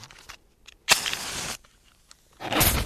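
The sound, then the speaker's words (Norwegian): A fireplace being lit with paraffin: a sudden loud whoosh of flaring flame lasting about half a second, a few quiet rustles, then a second rushing burst of fire. No one speaks. “Oh, hadde du på parafin?”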